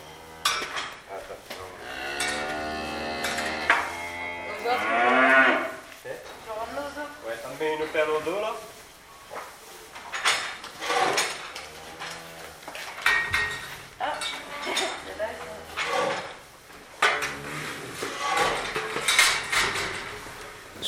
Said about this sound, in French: Je vous laisse encore quelques secondes de son de la stabulation à l'heure où Christophe et Landry nourrissent les vaches